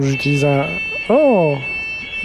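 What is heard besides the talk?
fire alarm ringing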